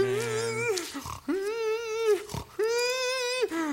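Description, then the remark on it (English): Loud wheezing from a man in three long, strained, squealing pulls of breath, each broken by a short, harsh gasp, with no talking. “I remember is is the the breathing, the intense noises that he was making, and the wheezing.”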